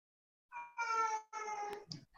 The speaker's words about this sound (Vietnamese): à, chị em có nghe tiếng mèo chị không có ảnh hưởng không